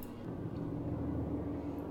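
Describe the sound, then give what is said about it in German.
A helicopter drones overhead, a steady, low rumbling whir with a faint throbbing hum that holds at an even, moderate level throughout, with no voices. “Auch der Hubschrauber findet es möglich.”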